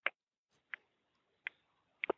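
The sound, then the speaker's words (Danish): A voice imitates the ticking of a grandmother's clock with a few sharp mouth clicks, spaced roughly evenly, ending on a quick double click, with no talking. “Og vi skal jo ikke særlig lang tid tilbage, før hvis jeg tænker på min mormor, så kan jeg høre uret tikke.”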